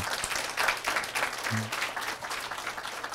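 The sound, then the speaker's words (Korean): Audience applause for the female factory workers of Korea's industrialization era, a dense, steady wash of many hands clapping at an even loudness, with a brief low murmur partway through. “여러분 그 여공 언니들한테 박수 한번 보내주세요.”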